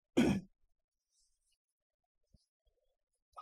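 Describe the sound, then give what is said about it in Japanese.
A single short, low throat clearing bursts out at the start, loud and rough, followed by near silence with a couple of faint soft clicks. “ちょっとあの、咳払い失礼します。”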